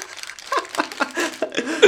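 Crunching of a salty Torcida corn snack: a string of irregular, crackly crunches and crinkles, fairly loud and dry, repeating unevenly for about two seconds with no voices.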